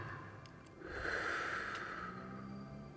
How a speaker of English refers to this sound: I'm going to close my eyes. Would you like to join me? Breathing in together.